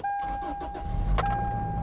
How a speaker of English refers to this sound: So guess what? I'm going to end this one by starting up my car